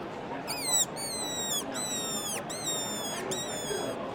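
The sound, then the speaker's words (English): A little black reed fox call blows a series of shrill, quavering squeals imitating a pained rabbit or rodent, repeated several times in close succession with brief breaks, loud over a low background hiss. “Which is the sort of more traditional um, sort of pained rabbit rodent type squeal.”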